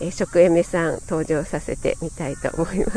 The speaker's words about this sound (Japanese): 私今日はちょっとあのまた野外で ライブお散歩のね途中でライブ立ち上げたのでちょっとセミの鳴き声とカーカーがうるさいかと思うんですけども